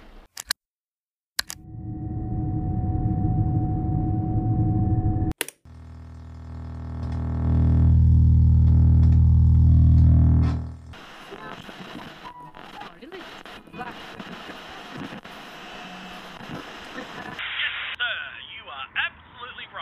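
A radio crackles through static: sharp clicks, a steady humming tone, then a loud roaring hiss that swells and cuts off, followed by fizzy, garbled broadcast noise that keeps shifting.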